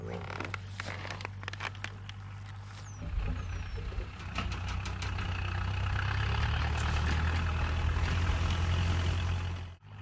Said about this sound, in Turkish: Hiçliğin ortasında az önce yanından traktör geçti.